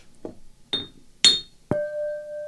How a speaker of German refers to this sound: Und auf diese Worte, für diese Worte möchte ich dir danken und natürlich auch mit dir anstoßen. Prost.